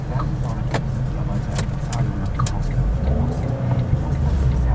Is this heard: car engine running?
yes